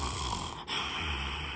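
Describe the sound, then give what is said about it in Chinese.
A low, raspy breathing effect of a carrot monster, steady and rough with a snoring, growling texture, and one brief catch in the middle before the harsh breath resumes, no talking. “但就在毛毛兔准备上床睡觉的时候，他听见了”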